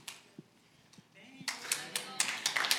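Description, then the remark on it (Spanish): A church audience breaks into clapping to applaud God for a victory, after a few scattered taps, many hands joining into a loud, dense applause with a steady, slightly pulsing rhythm that continues to the end. “Y aplaudámosle a Dios porque es una victoria eso.”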